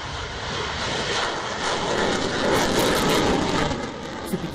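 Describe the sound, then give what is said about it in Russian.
A loud, steady roar of four Su-57 fifth-generation fighter jets passing overhead during a parade, a broad rushing engine noise that swells slightly toward the middle before easing, with no voices present. “На параде 2018 года впервые показали истребители пятого поколения Су-57, однако тогда их было два, сейчас же пролетит четыре.”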